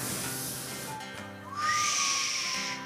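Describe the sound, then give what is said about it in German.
A person whistles while walking, a single tone that swoops upward and then holds steady for about a second, standing out over a steady background hiss; no one speaks. “Ich glaube, dass einer geht und pfeift.”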